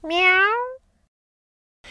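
A single clear cat meow, fairly loud, rising slightly in pitch and lasting under a second, followed by silence and a faint breathy sound at the very end.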